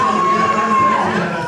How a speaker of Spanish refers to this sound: Un aplauso, señores y señores, por favor. Gracias, gracias.